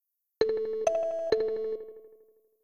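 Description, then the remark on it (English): A bright synthesized note from a SNES sounds dead center in the stereo field, then repeats twice as echoes panned entirely to the right, about half a second apart, each ringing out and fading over the next second or so, with no voices. “So, so you can have a starting note that's dead in the center, um, but its echo could be entirely just on the right side if you wanted.”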